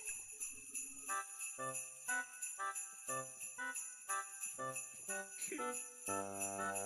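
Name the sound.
jingle bells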